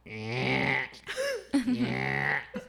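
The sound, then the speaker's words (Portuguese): A chair creaks and groans in a few drawn-out, rising and falling strains, loud enough to sound like a motorbike revving past; the chair needs oiling and creaks when someone sitting in it leans back. “Não é moto que passa, é essa cadeira aqui.”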